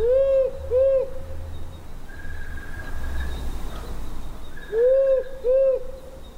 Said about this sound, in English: I, mean, I guess we all hear owl sounds, but we don't necessarily know which uh, species we're listening to. This is the, and we'll probably play a couple of owl sounds so you can start to hear the difference. Uh, this is the male powerful owl.